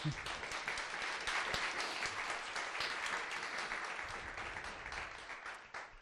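Sustained applause from a crowd for a guest being introduced, a dense wash of many hands clapping steadily for about six seconds before tapering slightly at the end, with no talking over it.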